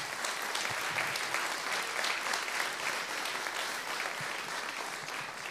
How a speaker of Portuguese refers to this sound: Em nome de Deus, vamos aplaudir a Senhor pela vida dele.